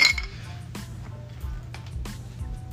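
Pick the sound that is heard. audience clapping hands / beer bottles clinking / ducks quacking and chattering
beer bottles clinking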